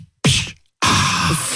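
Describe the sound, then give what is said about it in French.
A voice on the RMC radio show Apolline Matin imitates a sparkling water bottle being opened: a short breathy hiss that fades, a brief pause, then a longer, steady, loud fizzing rush, with no words. “Ça fait quel bruit déjà quand on ouvre la bouteille”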